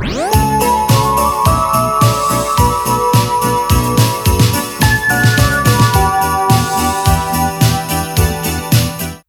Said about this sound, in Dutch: Ja, nee, het is een sustain. Dus het is de naklank van die bel. Ik hoop dat je het kan horen.